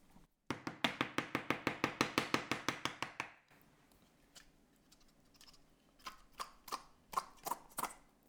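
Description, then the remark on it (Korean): Quick, even taps on a Spam can, done to get the meat out: about fifteen sharp knocks in a steady run that stop abruptly, followed by a few scattered, softer clunks and scrapes. “스팸 진짜 안 빠져. 스팸 잘, 잘 빼는 법은 진짜 어떻게 하는 걸까요?”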